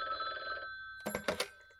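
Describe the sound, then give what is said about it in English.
A telephone rings with a steady, bright electronic tone for under a second, then stops and a few quick clunking knocks follow, like a handset being picked up. No one speaks. “she had gotten a phone call from her friends who said, Hey, why don't you come over here and hang out with us?”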